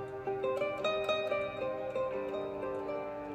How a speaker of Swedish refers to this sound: Ja, kan vi lyssna till musiken.